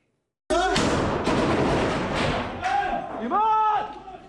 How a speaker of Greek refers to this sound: Οι σφαίρε πέφτουν σαν τη βροχή. Οι Ισραηλοί στρατιώτε και ένοπλοι τη Χαμά ανταλλάσσουν πραγματικά πυρά μέσα σε διαμέρισμα στη Χάν Γιουνή τη Γάζα.